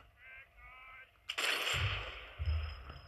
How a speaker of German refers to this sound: Scheiß Panzer schießen alle jetzt auf mich, Digga. Seine Minikanone da.